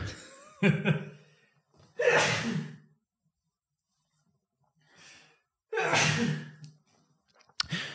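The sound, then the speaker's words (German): Two loud sneezes a few seconds apart, each preceded by a sharp gasping inhale, with quiet pauses between and no talking. “Ich muss niesen.”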